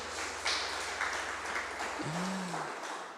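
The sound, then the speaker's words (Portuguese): A crowd applauds Jesus steadily, dense clapping filling the whole stretch at an even level, with a brief low tonal hum sliding in near the end. “Aplaude, aplaudir Jesus.”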